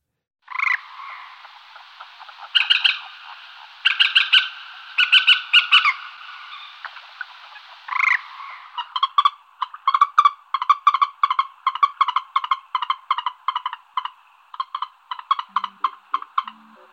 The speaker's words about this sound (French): Ça, c'est quoi La poule d'eau. Eh oui, c'est la poule d'eau